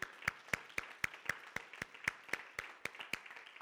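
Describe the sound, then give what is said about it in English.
An audience applauds volunteers who serve in First Impressions (ushers, greeters, coffee bar) as they stand to be honored, a wash of scattered clapping with a strong, steady beat of unison claps roughly four per second running throughout. No voices are heard. “Uh, if you serve in those ways, come on, let's give it up for these people.”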